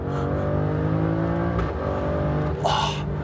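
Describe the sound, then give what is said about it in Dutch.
The Ferrari-developed aluminium-block V6 engine of an Alfa Romeo Stelvio Q runs loud and steady with strong low harmonics, its pitch shifting slightly, then a brief burst of hissy noise near the end over the continuing engine drone. “Een door Ferrari ontwikkelde V6.”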